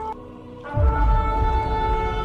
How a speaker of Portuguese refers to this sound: A corneta, o chofar.